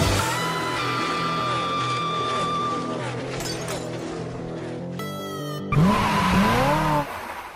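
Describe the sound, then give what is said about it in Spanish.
Loud race car engines roar and whine with rising and falling pitch, a sharp burst of noise midway, then a screeching tire squeal before the sound drops away. “Damas y caballeros, Enciendan sus motores y que comience la adrenalina. Verde, verde, verde. Arrancamos.”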